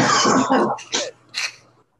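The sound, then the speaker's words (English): A harsh cough opens, followed by two shorter, quieter coughs in an uneven rhythm, with a faint steady hum underneath and no talking. “I'm like, after I cough, I'm like, oh, leave quietly.”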